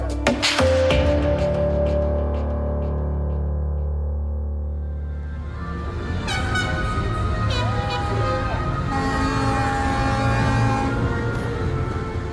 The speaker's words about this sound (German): So klingt das, wenn die Boote über den Kanal ziehen. 200 Boote. Jubel überall, Grölen, Nationalhymne, laute Musik